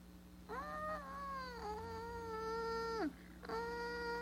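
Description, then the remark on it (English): A voice imitates a weak lion roar like a newborn lion's: one long, wavering, whiny cry lasting a few seconds, dipping at the end, then a second cry begins. Fairly loud. “that is like a newborn lion.”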